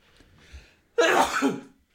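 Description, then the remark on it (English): One loud sneeze: a faint breathy intake, then a sudden harsh burst of air lasting under a second before trailing off into quiet. Nobody speaks. “Um, Bless you. Thank you.”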